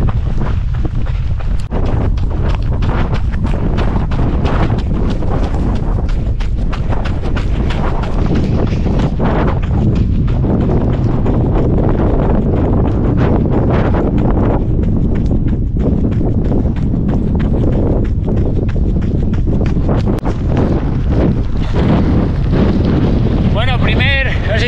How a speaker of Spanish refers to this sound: Me ha pillado aquí temporal, ahora mismo airazo. Voy a irme al pueblo y a ver si termino el entreno por las calles que me hagan de, de parar el viento al menos.